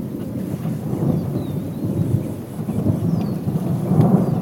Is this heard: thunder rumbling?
yes